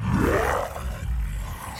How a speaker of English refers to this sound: She growled at me, a low guttural growl that came from the back of her throat.